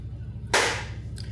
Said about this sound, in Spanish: Bueno, vuelvo a aplaudir, pues